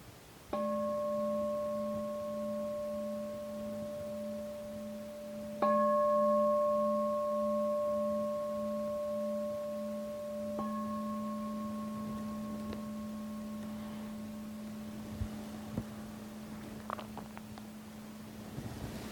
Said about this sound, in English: Please notice the changes that are going to appear in the mind and body as you hear the bell ring and following the bell.